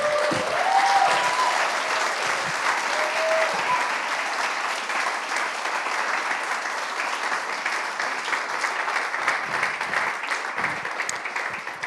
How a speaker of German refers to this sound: Wir wollen hier gleich klatschen. Nicht, nicht für das Missionswerk, sondern dass Gott ein großes Werk gemacht hat und das Größte kommt noch. Wollen wir Gott einen Applaus geben? Applaus